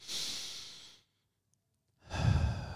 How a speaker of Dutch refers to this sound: Wat handig is om eerst lekker te gaan zitten en een diepe ademhaling te doen.